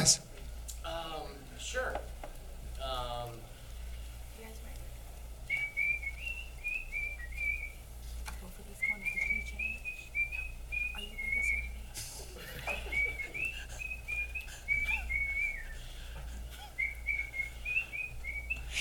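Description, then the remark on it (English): Brief talking at the start, then a person whistles a bright, warbling little tune as a new name for Tweedle, repeating quick chirpy phrases with short pauses between them for over ten seconds. “Uh, uh would you Would you be willing to whistle a new name uh, for for Tweedle”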